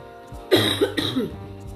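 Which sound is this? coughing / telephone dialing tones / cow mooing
coughing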